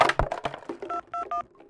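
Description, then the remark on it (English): A telephone number being dialed in an opera theater to call for help: three short, steady touch-tone beeps in quick succession, each a clear two-note electronic tone, following a burst of clicky handling noises. “who are you calling?”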